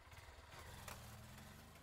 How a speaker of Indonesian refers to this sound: Deru mesin motor menyala dan aku pun berangkat ke rumahmu.